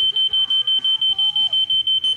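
A smoke detector fire alarm in a hostel, set off by heavy deodorant spray, sounds a rapid, steady series of high-pitched electronic beeps, about five per second, loud and continuous, with faint low background noise and a hint of voices underneath.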